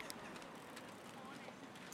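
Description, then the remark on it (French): A steady wash of bicycle noise on Copenhagen bike lanes at rush hour: light metallic clicking and ticking from freewheels and chains over a broad hiss of passing traffic, continuous and busy, with faint voices in the background. “Le bruit que vous venez d'entendre, c'est le son de pistes cyclables de Copenhague à l'heure des pointes.”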